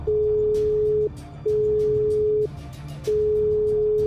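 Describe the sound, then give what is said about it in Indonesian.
A telephone ringback tone plays during an outgoing call to the caller's mother at night: three steady, mid-pitched beeps about a second long, separated by short pauses, with a faint low hum underneath and no voices. “Sayang, kamu duduk dulu ya. Aku telepon mama.”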